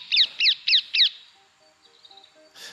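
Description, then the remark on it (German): A rose-ringed parakeet screeches four times in quick, even succession, loud, followed by a quieter stretch of faint calls and one last short, harsh squawk. “Die Papageien suchen gemeinsame Schlafbäume auf, wobei tausende Vögel lauthals kreischend einfliegen.”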